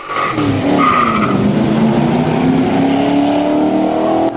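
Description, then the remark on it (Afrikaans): Loud engines rise steadily in pitch as a Ford Focus ST accelerates hard head to head with two 5-litre V8 Fords from the 1970s and 1980s, a Capri Perana V8 and a Sierra XR8. A continuous throaty roar, with a brief tyre squeal near the start. “die Focus ST versnel kop aan kop saam met twee 5 liter V8s van die 70s en 80s, die Capri Perana V8 en die Sierra XR8.”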